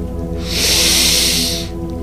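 A single long, deep breath drawn in through the nose during a guided relaxation, a steady airy rush that swells and fades over about a second, over soft sustained background music.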